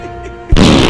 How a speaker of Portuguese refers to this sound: Homem é preso após soltar um peido na frente de uma pessoa.